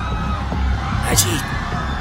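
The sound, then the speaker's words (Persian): A crowd of airplane passengers screams and shouts as the plane shakes, in a dense, overlapping commotion that runs throughout, with a sharper, louder burst of cries near the middle. “هواپیما تکان خورد و جیغ مسافران به هوا رفت مهمانداران سعی در آرام کردن مسافران داشتند”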